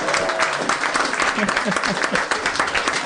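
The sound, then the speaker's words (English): A crowd claps steadily for about three seconds for a hypnotherapist, a dense, sustained wash of applause with a few voices mixed faintly underneath. “Let's give him a hand, everybody.”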